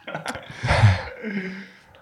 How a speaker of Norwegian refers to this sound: Men den, jeg begynte å bli lei av pustingen, så jeg klikker litt for meg.